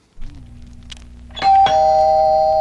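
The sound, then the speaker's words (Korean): A doorbell chimes a two-note ding-dong, two bright strikes in quick succession whose ringing tones hang on and sustain, preceded by a low steady hum. “차인벨 소리예요. 띵동.”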